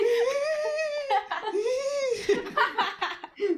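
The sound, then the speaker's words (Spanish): A high, wavering voice sobs and laughs at once, drawn-out wailing tones breaking into shaky, hiccuping bursts, fairly loud with no clear words. “está llorando y se está riendo, güey.”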